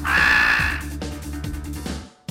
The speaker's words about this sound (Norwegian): Kråkene likte selvsagt ikke å bli fanget på den måten og satt følgelig i gang et ordentlig leven hver gang de så en person som bar maske.